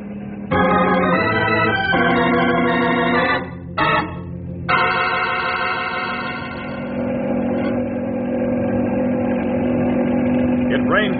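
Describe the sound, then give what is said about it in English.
A helicopter engine roars at full power, a loud, steady drone with layered harmonic tones that dips briefly after a few seconds, then holds strong and even to the end. “Now, Grey Wolf, give this flying banana all it's got.”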